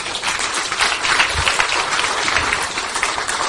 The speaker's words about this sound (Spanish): Muy bien. Un aplauso, por favor